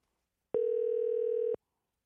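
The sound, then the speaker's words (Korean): A telephone ringback tone sounds once as a call is placed to a listener, a steady electronic hum lasting about a second, clear and fairly loud, with silence before and after and no voices. “자, 전화 한번 걸어보도록 하겠습니다.”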